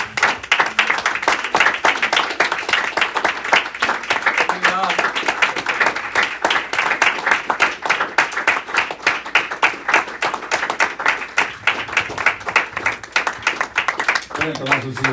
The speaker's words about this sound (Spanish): Le damos un aplauso más al Señor Jesús